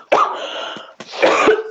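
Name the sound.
cough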